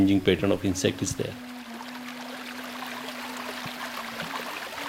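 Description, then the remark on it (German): A voice briefly at the start, then water flowing steadily through an artificial watercourse that tea farmers use to make up for missing rainfall, a continuous rushing and trickling with a faint low hum underneath. “Die fehlenden Regenfälle gleichen immer mehr Teebauern mit künstlichen Wasserläufen aus.”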